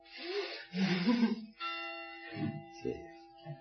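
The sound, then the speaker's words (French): Bells ring with overlapping, sustained metallic tones that hang in the air, punctuated by a few louder clanging strikes, with no one speaking. “Oh, je m'excuse, il faut que j'attende que cette sonnerie se termine.”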